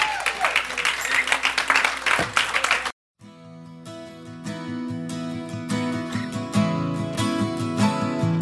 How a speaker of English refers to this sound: Give Lord a hand clap this morning.